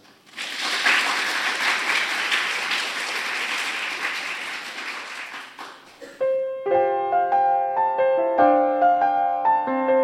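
Steady audience applause for performers about to sing a final song fills the first six seconds, a dense wash of many hands clapping, then fades as a sustained, melodic instrument begins playing chords and notes.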